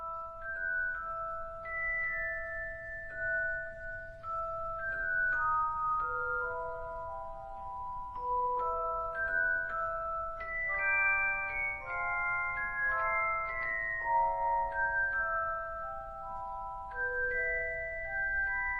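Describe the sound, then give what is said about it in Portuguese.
The Harry Potter film saga theme: a delicate, tinkling bell-like melody plays alone, note after note in a flowing, mysterious tune, with a soft low rumble beneath it throughout. “Isso aí, isso mesmo que vocês ouviram, eu estou falando do meu bebê, meu marido, Harry James Potter, ou Harry Thiago Potter para os brazucas.”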